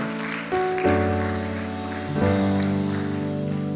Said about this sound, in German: Lass uns noch mal einen Applaus geben für die Leute, die diese Entscheidung getroffen haben.